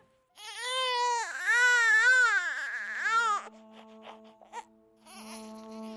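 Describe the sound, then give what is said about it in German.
A newborn baby wails right after birth in long, strained, high-pitched cries that rise and fall, loud, then trails off into short whimpers before another cry begins. “Bereits unsere erste Lebensäußerung, der Schrei gleich nach der Geburt, wäre nicht möglich ohne dieses knorpelige Gebilde zwischen Rachenraum und Luftröhre.”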